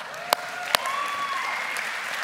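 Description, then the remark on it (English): An audience breaks into steady applause for farmers, a dense wash of clapping with a couple of sharper claps standing out early and faint whistles rising over the crowd. “Let's hear it for farmers.”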